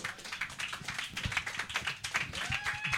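A short burst of hand clapping from a small group, a dense patter of quick, overlapping claps at steady moderate loudness with no voices over it.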